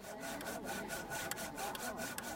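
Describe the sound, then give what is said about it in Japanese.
A handsaw cuts through a log with steady back-and-forth rasping strokes, fairly loud, its rhythmic scraping continuing throughout with no voices; it is a log-cutting activity at Satoyama Garden. “さあギコギコとねノコギリを引く音聞こえてきますがこんな風に丸太切り体験や薪割り体験ができてさらにその木を燃料に里山ガーデンの真ん中の焚き火台では火が焚かれていました”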